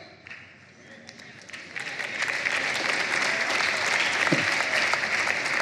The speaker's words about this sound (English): I see many wives applauding right now, and some husbands are.